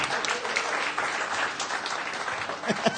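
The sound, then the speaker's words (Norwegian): A group claps for themselves after a good round, a steady, dense, continuous patter of many hands for several seconds, with a few faint voices mixed in toward the end. “Jeg syns dere gjorde en god runde Gi dere sjøl en applaus.”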